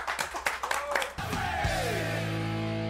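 A short burst of audience applause on a faith program, a quick scatter of claps for about a second, cut off as a swelling musical tone with a falling sweep takes over.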